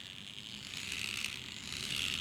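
A small hand-operated toy fan, driven by hand, whirs steadily, a continuous buzzy hiss with a faint whine rising in pitch as it spins. No one speaks.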